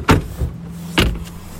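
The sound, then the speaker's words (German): Two solid door slams of a car costing well over 100,000 euros that has no soft close, about a second apart and loud, each a sharp thud with a brief rattle, with a low steady hum between them and no one speaking. “Ja, stell dir vor, kaufst dir ein Auto für deutlich über 100.000 Euro und das Ding hat kein Soft Close.”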